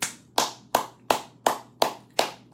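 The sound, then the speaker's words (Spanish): Seven sharp, crisp hand claps at a steady, even pace, like one person applauding Orton, each clap bright and snapping with a short decay, over a faint low hum and no talking. “un aplauso y un bravo a Orton y un aplauso para”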